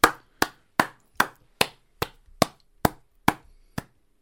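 A single pair of hands claps about ten times in a slow, steady rhythm, each sharp, crisp clap ringing briefly before the next. No voices are heard.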